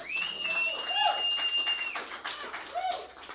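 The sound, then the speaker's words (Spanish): An audience claps steadily for a few seconds after a sung performance. The dense applause is joined by a long, high sustained whistle and a few shorter whistled notes. “Todos son mis sobrinos, por eso aplauden.”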